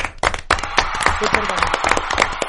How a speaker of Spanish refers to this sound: Aplausos para ti. Bravo.